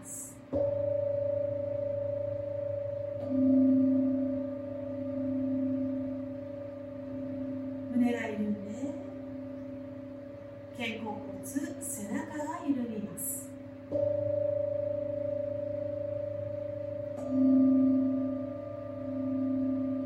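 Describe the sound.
A singing rin bell hums with a steady, sustained ringing tone during a lying-down yoga meditation for relaxation. It is struck again partway through so the resonance swells fresh, and a soft voice speaks briefly over the lingering hum.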